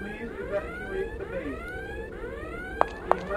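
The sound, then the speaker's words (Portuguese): A video game alarm siren wails continuously in rising, repeating sweeps, fairly loud and steady, with two sharp clicks near the end and no one talking, in a laboratory level of an audio game as the player moves toward the siren to deactivate it. “A Sirene, ela tá um pouquinho desalinhada e eu quero matar ela, eu quero realmente desativar porque ela me irrita.”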